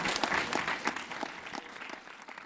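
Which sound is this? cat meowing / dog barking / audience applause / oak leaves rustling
audience applause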